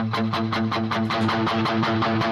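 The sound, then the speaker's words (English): Electric guitar with a distortion (gain) pedal switched on, playing a steady, evenly repeated chord pattern with a thick, gritty, sustained tone, fairly loud with no voices. “can hear the, the gain pedal come on, or the distortion pedal.”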